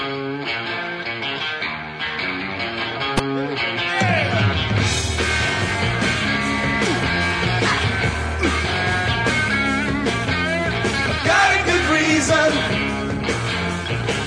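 A loud rock recording is played on air, steadily, with distorted electric guitar riffing over bass and pounding drums; the full band fills the whole stretch without pause and no singing comes through.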